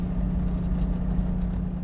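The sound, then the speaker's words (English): A four-wheeler ATV engine runs at a steady idle in a big open pasture, a continuous low, throaty hum with a constant pitch and even loudness throughout, with no voices. “We cross a creek and pull into a big open pasture, maybe the size of a few football fields, and Megan shuts off the four wheeler.”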